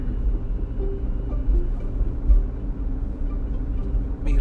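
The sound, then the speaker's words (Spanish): A car gives off a steady, deep rumbling drone that runs unbroken for a few seconds, low and droning with slight fluctuations and no voices over it. “mi, carro está haciendo un ruido raro.”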